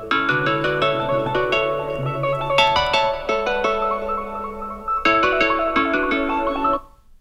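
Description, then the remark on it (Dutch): A phone ringtone plays a bright, repeating electronic melody with sustained tones, continuous for about seven seconds before cutting off, as the speaker's brother calls. “Wanneer ik ongeveer een half jaar later net even vergeten ben dat elk moment een belangrijke telefoon kan volgen, belt mijn broer.”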